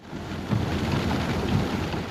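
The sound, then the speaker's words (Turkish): Heavy rain from a sudden 15-minute downpour that flooded the streets of Bodrum, Muğla, Turkey, pours down in a steady, dense roar, loud, with low rumbling swells underneath and no voices. “Aniden bastıran yağmur yolları göle çevirdi.”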